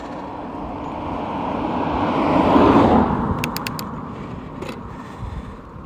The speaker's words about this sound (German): Ich bin gerade auf dem Fahrrad in Schottland. Das heißt, ich bin gerade auf der Landstraße und manchmal fahren Autos vorbei. Zum Beispiel jetzt.